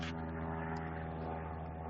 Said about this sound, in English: Wait a second for the plane. Sorry.